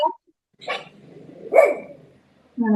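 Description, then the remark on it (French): Two dogs bark at home in a few sharp, loud bursts, with a rough, rumbling texture between barks and a final yap at the end. “Ah, quelqu'un, il y a un chien qui n'est pas.”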